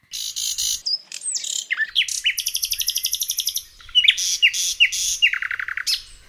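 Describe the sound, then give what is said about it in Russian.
A nightingale sings, mixing rapid rhythmic trills with sharp rising whistles, dry crackles and clicking notes, delivered in varied bursts with no voices present. “По марке разные трески и цыканья.”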